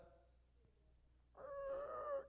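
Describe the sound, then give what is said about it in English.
A voice imitates a creaking door: after a quiet moment, a drawn-out, wavering squeak rises and bends in pitch for about a second, clear. “that was my version of a door.”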